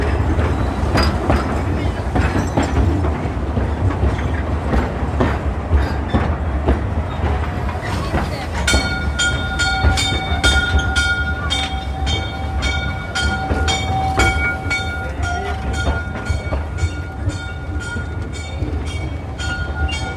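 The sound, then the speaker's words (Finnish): A train rumbles steadily along the rails with a loud, continuous roar and rhythmic clickety-clack of wheels over joints; partway through, a sustained metallic whine or squeal rises above the rumble. “Että tehdään paljon työtä, että saadaan se juna kulkee, niin sillä niin paljon väliä, missä se kulkee.”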